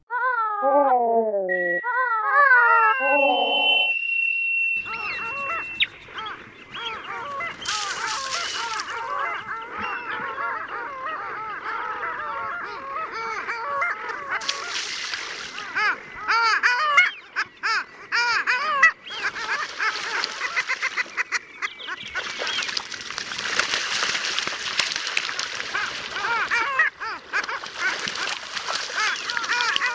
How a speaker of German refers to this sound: Na, das ist doch mal das Geräusch von Arktis, oder nicht? So klingt's im hohen Norden, wo die dort gar nicht so seltene Eisente brütet.